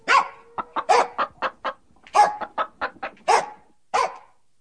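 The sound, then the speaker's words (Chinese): A farm dog, Laibao, barks in loud, sharp bursts at the hens to hush them while they cluck in quick, shorter calls between the barks, the noises overlapping in an irregular, busy rhythm with no talking. “爷爷出门的时候，他更像护卫似的跟前跟后，不时叫个几声，阻止陌生人接近。偶尔，他也会吼吼那些母鸡，让那些吱吱喳喳的太太们安静点。”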